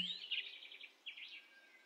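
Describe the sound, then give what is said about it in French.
Soft, high chirping and trilling birdsong carries on steadily for a couple of seconds, faint, with no voices, just a quiet outdoor hush around the birds. “le chant des différents oiseaux peut-être, le bruit des branches qui craquent”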